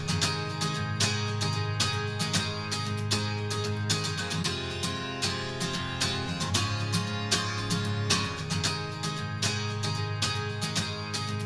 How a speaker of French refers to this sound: on retourne sur la première guitare électroacoustique avec euh, un son beaucoup plus métallique, beaucoup plus agressif, beaucoup plus percussif.